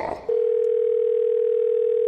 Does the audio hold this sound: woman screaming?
no